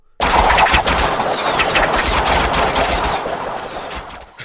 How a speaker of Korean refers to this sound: 조총을 든 외군 병사들이 언덕을 올라 꼭대기에 그 흙집으로 기어 들어가더니 성 안을 내려다보면서 조총을 난사하였다. 성 안으로 탄환이 소나기처럼 날아들었다.